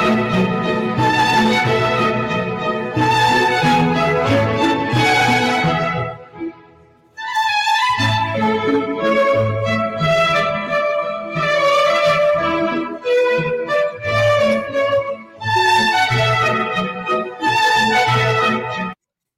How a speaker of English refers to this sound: Well, because we are listening to some classic music, allow me to close the show out with my fancy accent.